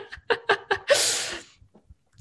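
A few quick, breathy voiced bursts followed by one harsh, rasping cough that trails off after about half a second, fairly loud, with no speech.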